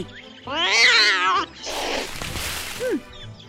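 A black cat lets out a loud, wavering yowl lasting about a second as it leaps from hiding beside a tree and pins a bird with its paws, followed by a burst of rough, noisy scuffling and a brief falling squeak near the end.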